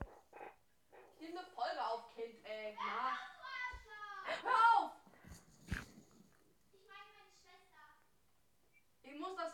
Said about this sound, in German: Boah, meine Schwester, was schreit die da denn jetzt schon wieder, eh? Muss ja mal, hier. Kind, schreit nicht so!